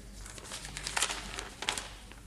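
Quiet rustling and crinkling of papers as a woman hands them over in an office, with two sharper crackles standing out from the soft shuffling; no one speaks.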